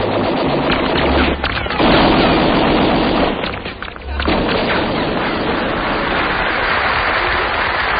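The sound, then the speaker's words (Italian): Sustained bursts of rapid automatic gunfire, loud and dense, crackling continuously for several seconds with a brief lull in the middle before the shooting resumes. “Figliocci, un po' di fuoco.”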